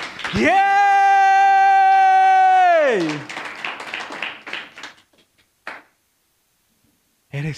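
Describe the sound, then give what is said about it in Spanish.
An audience applauds for God and cheers right after a long, loud sustained vocal cry, the clapping fading out within a couple of seconds, followed by a brief burst of noise. “Dale el aplauso a Dios.”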